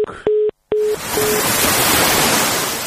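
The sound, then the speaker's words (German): A phone line cuts out with a few short electronic beeps of a busy tone, broken by clicks and a brief dropout, then a steady loud hiss of line noise fills the rest. “Wir haben ein kleines Problem mit der Leitung.”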